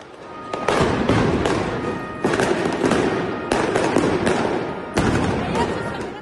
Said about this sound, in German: Nach dem Spiel versuchen Neapel-Fans dann zum Teamhotel von Eintracht Frankfurt vorzudringen. Es fliegen Steine und Feuerwerkskörper auf die Polizei.